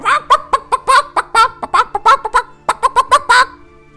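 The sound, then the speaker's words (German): A voice imitates an agitated chicken complaining as it is grabbed, with a rapid series of short, nasal clucks and squawks, about fifteen bursts in quick rhythm, fairly loud, with no other speech. “du packst, du packst das Huhn, es fängt sofort an, sich zu beschweren.”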